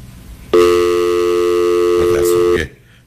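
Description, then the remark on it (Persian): A telephone tone after a call is cut off: one loud, steady electronic hum holding a flat pitch for about two seconds, then stopping abruptly. “تلفنتونم قطع شد”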